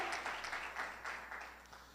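An audience applauds for Christ Jesus during a sermon, many hands clapping in a dense, bright wash that keeps an even level for the whole stretch before easing off slightly at the end.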